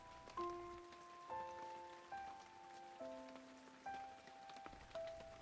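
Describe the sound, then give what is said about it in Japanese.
Raindrops patter steadily and softly, mixed with gentle bell-like musical notes that chime roughly once a second. The scene is quiet, with no voices. “あれ雨かな雨がポタポタ大きな葉っぱが傘になってちょうどいいね”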